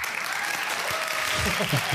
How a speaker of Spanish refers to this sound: Aplausos falsos, por favor.